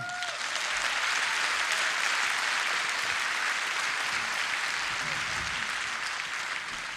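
Sustained audience applause at a jazz concert as a tenor saxophonist is welcomed on stage, a dense wash of many hands clapping at steady loudness for several seconds, with no voices standing out above it.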